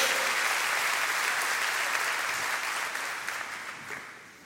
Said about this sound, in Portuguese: Então hoje, pode dar uma salva de palmas ao Senhor, pode fazer isso. Glória a Deus.